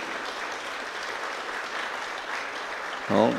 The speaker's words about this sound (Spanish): Bienvenido una vez más a la iglesia. Le vamos a dar un fuerte aplauso a él también.